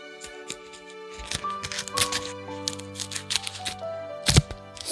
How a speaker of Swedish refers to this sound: Så! Jag liksom river och klipper lite olika pappersgrejer.